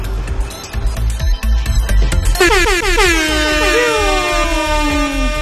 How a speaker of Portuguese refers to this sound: Põe, põe, o barulho do breaking, breaking news. Vai lá, breaking news. Não tem barulho de breaking news. Aquela porra daquela sirene.